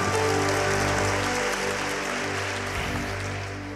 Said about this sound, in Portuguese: Você pode aplaudir bem forte, nosso Deus que é poderoso. Aleluia.